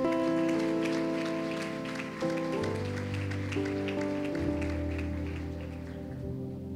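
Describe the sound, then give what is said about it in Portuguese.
A church audience applauds the Lord steadily, a dense crackle of many hands clapping over sustained keyboard chords that shift pitch a few times, with no talking throughout. “Aplauda o Senhor por isso, então.”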